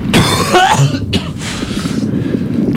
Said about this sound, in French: Avec tous ces gaz, putain, ça racle la gorge.